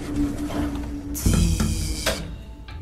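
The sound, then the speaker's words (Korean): An elevator's machinery starts up with a sudden mechanical whir over a low background hum, runs steadily for about a second, then stops with a soft clunk. It is a glass elevator moving in the empty passenger terminal of Incheon Airport at around 2 a.m. “텅 빈 공항에서 갑자기 들리는 기계 소리. 그건 다름 아닌 엘리베이터 소리였습니다.”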